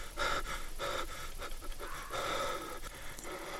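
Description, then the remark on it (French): Rapid, short panting breaths repeat in a quick steady rhythm, fairly loud, with no speech over them. “Le chasseur est mal à l'aise. Il a le souffle court. Il a peur.”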